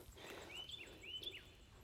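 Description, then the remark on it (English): A bird chirps twice, each call a quick rising whistle about half a second apart, standing out clearly over a low, steady background hum. “there's a bird chirping really loudly are talking to each other.”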